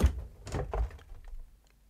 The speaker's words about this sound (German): Herr Burtschig erhob sich mühsam, begab sich zum Kühlschrank. Herr Ping! Und öffnete die Tür.